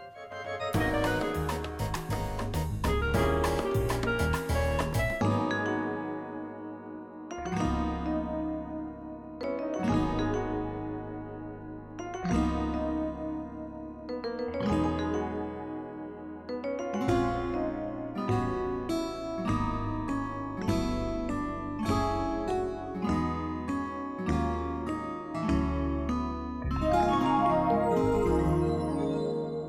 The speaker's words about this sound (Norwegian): Den er, vel en, er det en remix av Castlevania 2 Simons Quest? Ja, det er det. Yes, da hører vi på den.